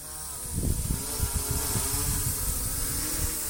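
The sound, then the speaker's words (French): A drone's steady electric buzz revs up and lifts off, its whining hum rising slightly in pitch and holding fairly loud over a faint hiss. “Alors, c'est le bourdonnement d'un drone qui décolle.”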